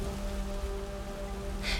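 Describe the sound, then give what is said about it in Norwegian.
Heavy rain pours down during a thunderstorm in a steady, dense hiss that fills the short stretch, with a brief brighter splash of noise near the end and no voices. “Torden buldret. Lyn flerret himmelen, og regnet pøste ned.”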